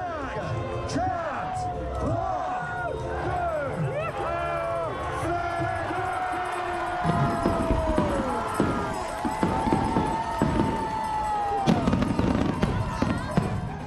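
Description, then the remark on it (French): Fireworks burst again and again over the port of Saint-Pierre, above a loud, continuous roar of thousands of people cheering and shouting, with whistling rising tones, sharp bangs and crackles layered through the din. “et là, il y a le feu d'artifice qui éclate au-dessus du port de Saint-Pierre.”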